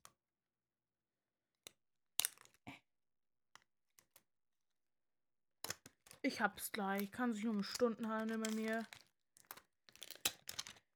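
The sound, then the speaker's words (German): Plastic shrink-wrap on a boxed product crinkles and crackles in sparse, irregular bursts as it is torn open. A person speaks briefly in the middle, and more crinkling follows. “Alle hören jetzt hier das Knistern.”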